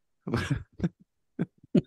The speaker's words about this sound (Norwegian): Jeg er ikke sjuk, men jeg er litt sjuk faktisk. Pjusk. Men jeg skal ha cough button tilgjengelig. Hoster en del.